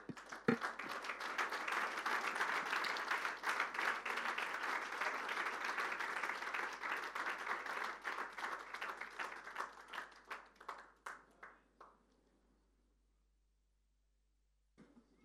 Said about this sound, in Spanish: ¿Cuánto pueden tributar un fuerte aplauso?